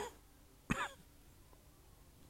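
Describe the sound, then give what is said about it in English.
A single sharp, fairly loud cough bursts out of near-silence, with a rough throat-clearing quality, followed by quiet. “I got a cough right now.”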